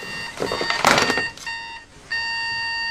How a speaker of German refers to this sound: Fünf Minuten später nervt der Wecker wieder.